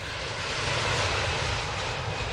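A loud, steady roar of an airplane engine fills the whole stretch, a dense continuous drone with a low rumble underneath and no voices.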